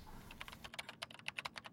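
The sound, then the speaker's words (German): Quick, uneven keystrokes clatter on a computer keyboard as a sales representative types numbers into his PC, about a dozen sharp clicks in a short burst, fairly quiet, with no voices. “Der Vertreter tippt Zahlen in seinen PC”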